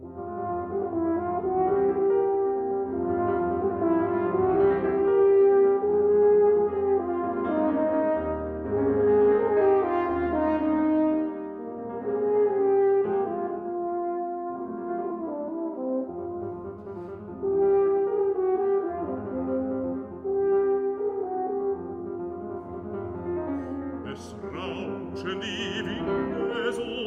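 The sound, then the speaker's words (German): An art song for voice, horn and piano plays steadily at a moderate, even loudness. Long sustained tones flow in slow, legato phrases, with a brief brighter swell near the end. “was Sie jetzt hören, ist ein Stück, das heißt Herbst auf dem Text, den auch Schubert vertont hat, Rellstab von Franz Lachner”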